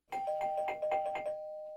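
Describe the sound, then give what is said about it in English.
A doorbell chime sound effect rings out clearly on its own, a quick run of about six rapid bright strikes followed by a lingering ringing tone that fades slowly. “That's the trivia doorbell”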